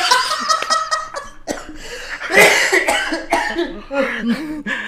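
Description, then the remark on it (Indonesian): A string of harsh coughs comes in uneven bursts over several seconds, mixed with a bit of breathy laughter, with no talking. “kan batuk hmm.”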